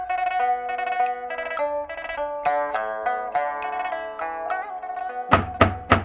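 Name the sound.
knocking on a door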